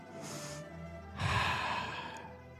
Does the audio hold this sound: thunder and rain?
no